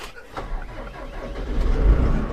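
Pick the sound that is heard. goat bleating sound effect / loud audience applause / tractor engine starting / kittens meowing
tractor engine starting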